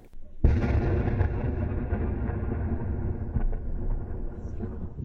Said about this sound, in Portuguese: Aqui, um jornalista flagra o momento em que um tanque de guerra israelense atira contra um carro.